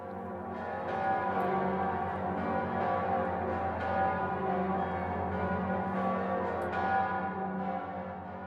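The Pummerin, a large, heavy church bell in Passau, Germany, on the Danube, tolls loudly, its deep booming strikes overlapping into a continuous, rich humming resonance that rings out steadily without any talking.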